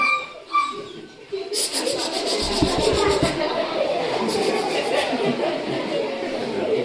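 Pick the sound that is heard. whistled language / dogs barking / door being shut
dogs barking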